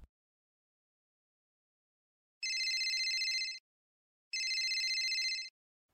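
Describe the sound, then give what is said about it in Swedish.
A telephone rings twice, each ring a bright, buzzy trill lasting about a second, separated by a short silence. The sound is clear, with no voices. “Jag vaknade av att telefonen ringde.”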